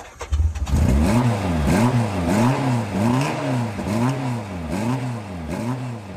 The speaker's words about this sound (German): Auch wenn ihr jetzt vielleicht denkt, oh, 67,2 PS, wie wird sich das Ding wohl fahren? Ich kann euch sagen, es war spektakulär. Ja. Wirklich. also, wir äh, lassen den Motor an und fahren los.